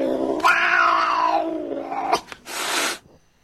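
A cat lets out a long, drawn-out yowl lasting about two seconds, followed by a short sharp hiss-like burst of noise, close and loud with no talking.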